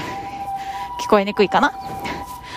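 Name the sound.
ambulance siren passing outside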